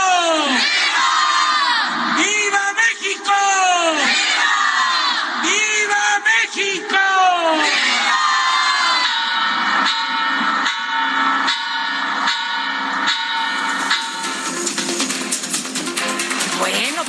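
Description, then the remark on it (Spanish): A large crowd in Mexico roars and shouts in unison in response to patriotic cries of viva and muera against corruption, classism and racism, a dense wall of overlapping voices rising in repeated surges, loud, with a steady din of cheering underneath. “De pronto como que la gente que estaba ahí pues no supo qué responder hasta que dijeron, ah, sí, muera, ¿no?”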